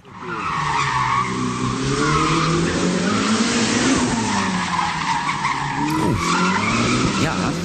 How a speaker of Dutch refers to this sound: Maar het is niet met zijn Ferrari-auto, overigens. Met zijn Formule 1-auto. Nee, niet de Formule 1-auto. Dit was de eh, Ferrari SF90 Stradale met een V8 hybride motor.